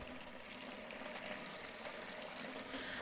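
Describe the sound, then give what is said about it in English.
Water pours and splashes steadily for a few seconds, a soft continuous rushing with faint trickling detail, fairly quiet and with no voices. “I fetch water and carry all over, from field to workhouse to cookshop to big house, in the hot of day or sting of rain.”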